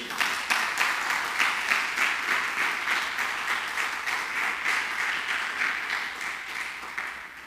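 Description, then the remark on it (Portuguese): A crowd applauds the Lord steadily for several seconds, many hands clapping in a dense, continuous wash of sound that stays fairly even throughout, with no talking over it. “Você pode dar um aplauso ao Senhor aí?”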